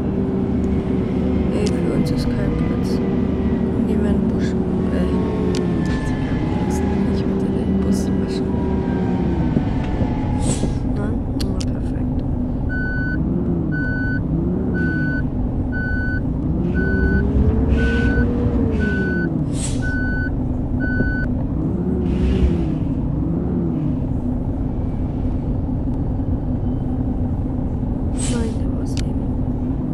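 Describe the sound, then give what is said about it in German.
A large bus engine in a driving simulator game drones and rises and falls in pitch as it maneuvers to a bus wash, with a steady run of evenly spaced reversing beeps partway through, fairly loud. “Und sonst gehen wir das Auto waschen, äh, den Bus.”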